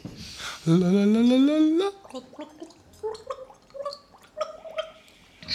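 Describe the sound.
Someone gargles a simple children's tune: one long, rising, gurgling note, then a run of short, bubbly pitched notes. No one speaks.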